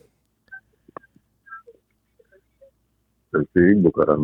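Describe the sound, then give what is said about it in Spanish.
A phone number is dialed: a quick, uneven run of short, quiet touch-tone beeps, followed abruptly by a loud voice speaking. “Vamos a llamarlo.”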